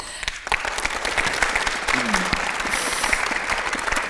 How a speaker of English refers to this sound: like we could just carry on for the next hour just applauding you. Wonderful ladies.